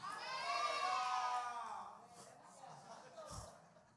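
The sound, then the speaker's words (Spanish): An audience shouts loudly together in response when asked whether they can hear, a swell of many overlapping voices that peaks early and then fades into scattered calls and murmurs. “Gritaron bien duro para que no le ponga la bocina.”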